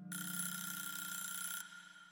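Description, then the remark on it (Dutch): A bright, continuous alarm clock ringing rattles loudly for about a second and a half, then cuts off, leaving a lower steady hum that lingers briefly. “Over de wekker gesproken, het is nu helaas tijd om deze boosdoener in het verhaal te introduceren.”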